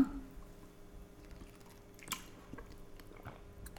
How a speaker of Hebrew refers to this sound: קודם כל אני עוצרת, תנחשו למה? כי אני הולכת לשתות. רגע.